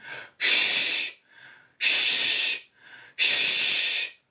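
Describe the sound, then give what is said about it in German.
Three loud, forceful 'shh' exhalations hissed through clenched teeth, evenly spaced, each lasting under a second, with softer breaths drawn in between; a person's breathing technique at high altitude, pressing teeth and palate down to raise pressure slightly and expel CO2. “Also ich presse dann ein bisschen die Zähne und den Gaumen runter, mache einen, einen SCH-Laut und das erhöht den Druck minimal und ich kriege das CO2 raus.”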